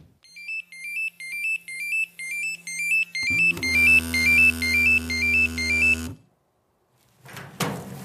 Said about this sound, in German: Für den Fall, dass sein Pieper Alarm schlägt, stehen und liegen im Schrank schwere Stiefel, Überhose, Jacke und Helm bereit.